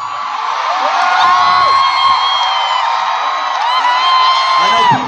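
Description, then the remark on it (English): A loud concert crowd roars and cheers continuously at a show, with high whoops and shouts rising and falling over a dense wall of noise. “get up here and say this a lot, but this is honestly one of the best crowds we've ever played to.”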